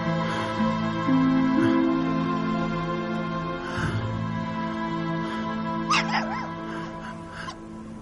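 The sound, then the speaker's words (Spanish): A puppy, held by two men beside a gate outdoors as snow falls, whimpers and lets out a few high, wavering yips, the sharpest cries coming in a short burst toward the end, over a steady, sustained musical tone. “Junto a la verja hay dos hombres con un cachorro.”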